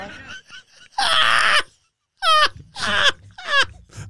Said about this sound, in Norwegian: Den villeste nysen inni her